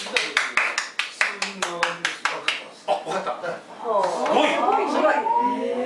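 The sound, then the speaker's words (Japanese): A steady run of about a dozen sharp, evenly paced hand claps rings out clear, then gives way to several voices talking and exclaiming excitedly. “これ拍手してあげて。”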